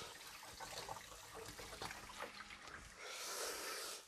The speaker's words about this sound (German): So, immer aufpassen, wenn man seinen Pfannenwender abwäscht, nicht direkt danach gleich in die Pfanne gehen, sondern erst abtrocknen, weil das äh, Wasser auf dem Pfannenwender würde dann hier das Öl ganz schnell zum Spritzen bringen.